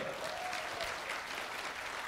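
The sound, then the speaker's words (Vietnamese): An audience claps steadily for a teacher, a dense wash of many hands applauding at an even level for about two seconds, with no voices on top. “Hãy dành cho cô thầy giáo của chúng ta một tràng vỗ tay thật lớn.”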